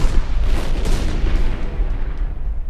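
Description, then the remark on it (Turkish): Loud, continuous cannon fire, heavy booms blending into a dense, rumbling barrage with deep low-end thunder throughout and no voices, the roar steady from start to finish; cannon fire sinking a Venetian ship carrying barley in the Bosphorus on 26 October 1452. “Vergi ödemeden Boğaz'dan geçmek isteyen ve dur ihtarına uymayan arpa yüklü bir Venedik gemisi 26 Ekim 1452 günü top ateşiyle batırılmıştı.”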